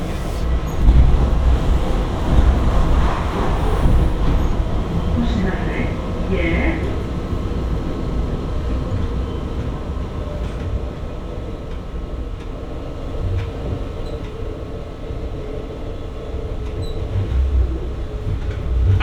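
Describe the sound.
A train rumbles steadily along the rails, a continuous low roar with faint metallic squeals and clatter, loud throughout, with a voice faintly audible beneath the noise.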